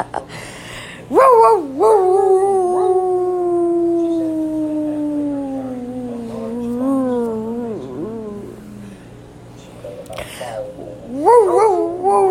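A puppy lets out a long, wavering howl that stretches for several seconds, bracketed by a few short, high yips near the start and end. Fairly loud.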